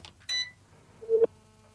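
A short high electronic chirp, then a steady low ringing tone on an outgoing phone line, heard alone and fairly quiet with a faint hum in between.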